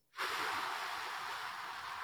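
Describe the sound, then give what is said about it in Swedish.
A single deep, airy breath in, starting abruptly and holding steady for nearly two seconds as a smooth, breathy rush with no voices. “Men om jag tar ett andetag in och sen så”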